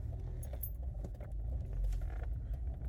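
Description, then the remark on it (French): A car goes by, its deep engine rumble steady and swelling slightly midway, with faint metallic clinks and rattles scattered over the top. “Oh la voiture!”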